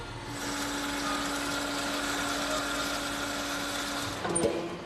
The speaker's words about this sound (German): Das kommt wieder aus dem 3D-Drucker. Dieses Mal allerdings nicht aus Kunststoff, sondern aus Metallpulver. Deshalb sprühen hier die Funken. So sollen Negativgussformen für die Filterträger entstehen.